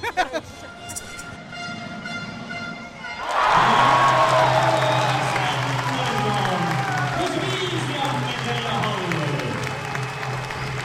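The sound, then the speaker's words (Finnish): A loud crowd of fans, including a large, noisy group of Huima supporters, erupts into cheering a few seconds in. Shouts and whoops rise over a steady low hum after a quieter, murmuring start. “Huiman kannattajienkin muuten itse asiassa aika on. iso ja äänekäs joukko mukana.”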